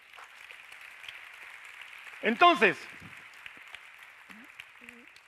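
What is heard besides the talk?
audience applauding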